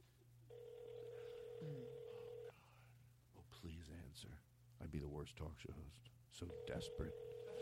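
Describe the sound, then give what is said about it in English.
A telephone ringback tone purrs steadily for about two seconds on an outgoing call to a cell phone, then people talk briefly before a second ring begins near the end. “as soon as you hear that phone ring, let's not do any.”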